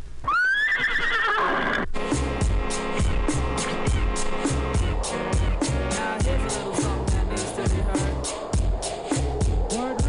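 A loud horse whinny rings out at the start, its pitch rising and trembling, then gives way to a dense, steady rhythmic pulse that fills the rest.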